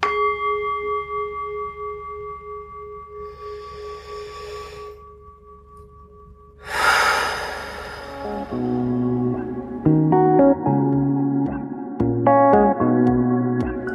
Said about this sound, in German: das muss ich mir auf jeden Fall auch ähm, besorgen und deswegen lasst uns doch einmal diesen Achtsamkeitsgong jetzt läuten lassen und dann gemeinsam einmal ganz tief atmen.